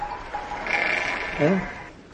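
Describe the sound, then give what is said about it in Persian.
A sheep lets out a short, quavering bleat about midway through, over a steady outdoor background hiss with a faint high tone before it. “خب ببرم همین جلو که صدا گاو گوسنده زیاد میشه”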